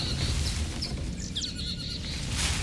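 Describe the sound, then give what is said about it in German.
Agitated birds give a run of short, sharp chirps and squeaky calls, some sliding downward, over a steady low background rumble; the calls are fairly faint and scattered rather than rhythmic. “Nur die Vögel regen sich furchtbar auf.”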